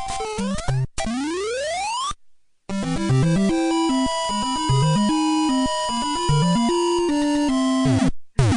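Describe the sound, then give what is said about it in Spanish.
Bright 8-bit chiptune jingle from a Mario video game, played when Mario reaches the castle and the flag is raised: a rapid rising slide like a flag dropping down a pole, then a bouncy square-wave fanfare that climbs and ends with a short flourish. “voy a ponerle a Pony que ponga la musiquita de Mario llegando al castillito y levantando la bandera.”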